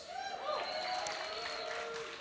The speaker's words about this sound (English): And uh, you know, most some of you clapped.